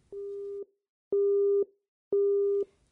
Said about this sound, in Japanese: ところがなぜか電話が話中でつながりません時間を置いて何度か試みましたが結果は同じでした